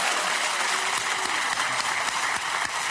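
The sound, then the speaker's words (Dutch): Sustained studio audience applause for Bas Nijhuis on the show Vandaag is Tijd fills the whole stretch, a dense, steady wash of many hands clapping with no voices breaking through. “Extra applaus voor Bas, dames en heren.”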